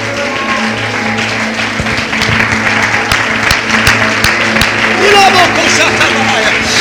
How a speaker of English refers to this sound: Clap your hands one more time and shout unto God with the voice of triumph.